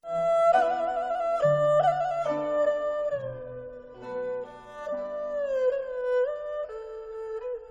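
Dogs howl in long, wavering, overlapping tones that slide up and down in pitch, filling the whole stretch at a steady, fairly loud level with no talking.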